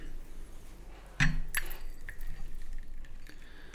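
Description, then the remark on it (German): Tea is poured into a cup, opening with two sharp clinks of china followed by a soft, steady trickle. No one speaks. “So, eben den Tee einschenken.”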